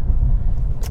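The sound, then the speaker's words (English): A car driving in the rain on an early-morning commute, heard as a loud, steady low road rumble from inside the vehicle, ending with a brief burst of bright splashing hiss. No one speaks. “It's raining, actually. It's on the commute, so in case if you hear water drops in the background, it's just the, the rain”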